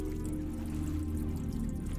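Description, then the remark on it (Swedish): Water seeps and trickles steadily into a submarine wreck more than 100 metres below the surface, beneath a low rumble, with faint dripping scattered through a dense, continuous background hum. “Vatten sipprar in i vraket och koldioxidnivån stiger.”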